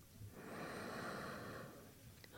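A single long, deep breath drawn in through the nose, a soft, steady airy rush lasting over a second, heard on its own with no talking.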